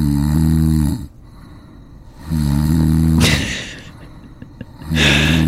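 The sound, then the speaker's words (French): Loud snoring by a sleeping man in a steady rhythm: three deep rumbling inhales about two seconds apart, each followed by a breathy, hissing exhale, with no voices. “le mec ronfle la vie.”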